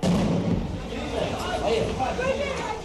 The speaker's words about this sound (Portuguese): Esse é o momento em que a polícia explode a porta e invade o apartamento. É o áudio de uma reportagem do Fantástico.